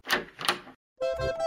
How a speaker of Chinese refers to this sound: 扣扣扣，烦恼来敲门。